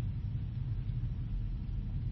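A vintage car engine rumbles steadily and low, a continuous idling drone with dense bass energy and no pauses, heard on its own without any voices.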